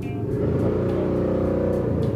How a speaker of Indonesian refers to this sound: bangsat motor